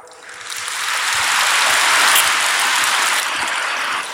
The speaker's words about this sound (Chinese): 鼓掌的人有一半没听懂。